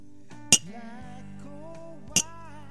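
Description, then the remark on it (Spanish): Two bright, sharp clinks of glasses touching in a birthday toast just after midnight, one glass holding water, spaced about a second and a half apart, ringing briefly over soft sustained music in the background. “Merecía el brindis.”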